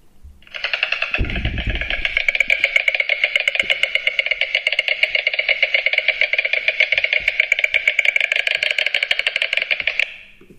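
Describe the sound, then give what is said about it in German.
A white stork's bill clattering in a long, rapid, steady wooden rattle, loud and unbroken for about ten seconds before stopping abruptly, with no voices over it. “Das war das Klappern.”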